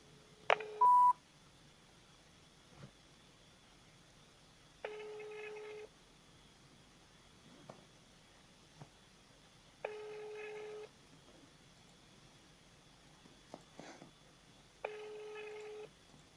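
signal or alarm, telephone dialing tones

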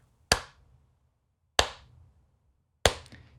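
human body sound, slow hand clapping

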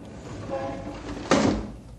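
household object, window being shut

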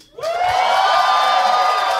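crowd, audience applause and cheering

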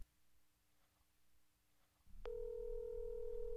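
signal or alarm, telephone ringback tone

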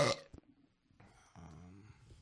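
human body sound, burp

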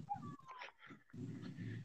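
animal, dog whimpering

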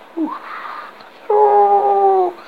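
sound effect, howling

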